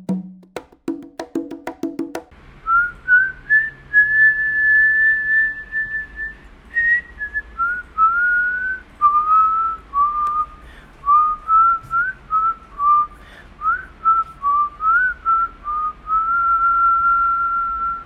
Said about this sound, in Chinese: 这是我自己吹的口哨哦。